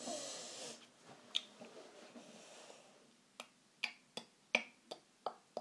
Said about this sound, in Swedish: De här gäspningarna får jag inte klippa bort. Nu sträcker jag på mig också. Hör detta kommer att bli så konstigt.